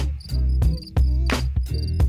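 Crickets chirp outdoors at night, a steady, high-pitched chirping throughout, partly masked by loud, deep thumping bass beats from a party in the living room that pulse heavily underneath at a regular rhythm.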